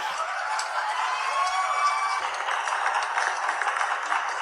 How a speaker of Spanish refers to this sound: Un aplauso, por favor.